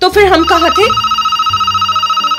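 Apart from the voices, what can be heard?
telephone ringing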